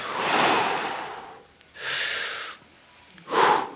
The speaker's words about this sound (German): Und mach das doch mal ganz kurz. Nehmt ihr mal ganz kurz eine Sekunde Raum und atmet mal tief ein und tief aus.